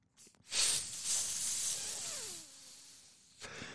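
A hit from a vape pen: a long, airy hiss of breath lasting about three seconds, rising quickly and holding steady before cutting off, with no talking.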